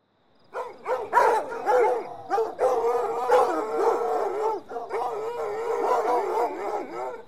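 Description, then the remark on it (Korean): A pack of hunting hounds, released to follow the scent of a woman's scarf, barks and howls together, overlapping voices rising and falling in a continuous, loud chorus with sharp yelps mixed in, without pause. “그러자 집 밖으로 뛰쳐나간 효고는 마부에게 안장을 얹으라고 소리를 지르고 사냥개들을 풀어 그녀의 스카프 냄새를 맡게 했다.”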